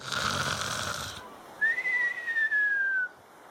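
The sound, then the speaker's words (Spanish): A voice imitates a grandfather's cartoonish snore as he sits in the living room reading the newspaper: a rough, rasping inhale followed by a long, high whistling exhale that glides slightly downward, performed once, fairly loud. “Mi abuelo se la pasaba todas las tardes sentado en la sala mientras leía el periódico con este en su rostro y roncando así.”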